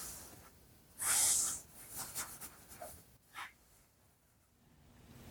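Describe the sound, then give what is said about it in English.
Soft rustling and scratchy brushing, with one louder sweep near the start followed by several lighter strokes, as someone slowly and gently runs their fingers through a person's hair on the right side. No one speaks. “And now, slowly here, I'm gonna run my fingers through your hair. And now on the right side, slowly and gently.”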